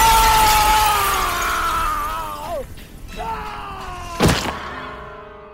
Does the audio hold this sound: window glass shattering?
yes